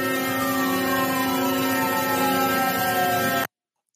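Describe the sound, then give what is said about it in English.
A loud, steady drone of large farm tractor engines rumbling as the tractors drive through downtown Ottawa, Canada, with a constant whining hum layered over the rumble, cutting off abruptly near the end. No one speaks. “Okay, so for my podcast listeners, that was huge tractors in Ottawa, Canada.”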